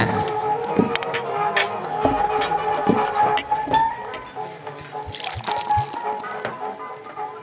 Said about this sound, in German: So, ein frisch gezapftes Butterbier